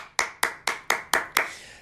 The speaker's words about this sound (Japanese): 全国の高校球児、そして高校生に拍手を送りたいと思います。本当にお疲れ様でございました。